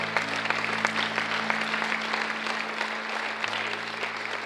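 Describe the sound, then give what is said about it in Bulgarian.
A church audience applauds steadily as an offering to the Lord for the baptism of the Holy Spirit, a dense wash of many hands clapping at an even level for several seconds, with a low sustained hum running underneath and no one speaking. “Има ли някой в тази църква, който може да даде на Господа едно дарение на ръкопляскане за кръщението Святия Дух?”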